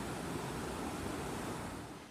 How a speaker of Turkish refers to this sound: Burası Tokat Turhal'da Bahçebaşı köyünde bir ilkokulun bahçesi. Su şelale olup aktı okulun bahçesinden.